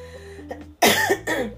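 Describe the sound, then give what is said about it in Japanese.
Two loud, harsh coughs from a lingering cough after COVID burst out in quick succession after a moment of low background hum, each one raspy and chesty. “違うだんだんなんか違う咳になってきた気がしてちょっと咳込みながらでごめんなさい”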